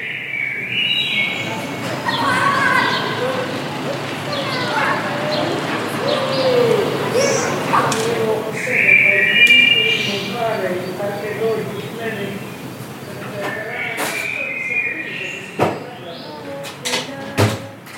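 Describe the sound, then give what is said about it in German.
Quiet, overlapping conversation murmurs with scattered clinks and a few sharper clattering knocks of plates near the end. “Also es ist Tellerklappern, glaube ich, und leise Gespräche.”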